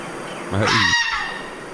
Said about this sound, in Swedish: Så låter han. Så här. Ja! Ja, ja! Så låter räven.